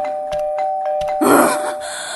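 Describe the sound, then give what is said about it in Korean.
A doorbell rings late at night with a steady electronic tone, punctuated by several quick presses and a louder burst midway, with no one talking; it is pressed by the next-door neighbour from unit 714. “누구신데 밤늦게 배를 그렇게 누르세요?”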